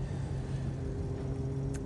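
A steady low engine rumble from a car stuck in road traffic, constant and droning like idling or slow-moving traffic, with a brief faint high click near the end.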